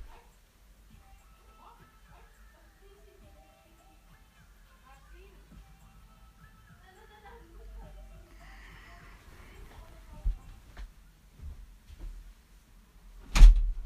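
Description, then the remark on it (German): A door is pushed shut with one sharp, loud thud at the very end, after a stretch of quiet shuffling with faint whimpering and yips from a dog in the background. “Ach, ich muss die Tür zu. Wegen Hintergrundgeräusch.”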